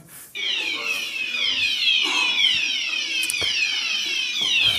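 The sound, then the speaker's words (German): A loud fire alarm in a building with a studio blares continuously after a brief quiet start, its piercing tone sweeping downward in repeated rapid whoops, steady with no voices. “Es war wunderschön, wir durften das Gebäude verlassen, waren dann wieder hier oben, dann ging der Alarm nochmal los und äh, so hat sich äh, die Aufzeichnung hier heute so ein bisschen verzögert.”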